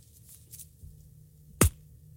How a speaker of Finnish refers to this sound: Mä katkasin kurkun kahtia.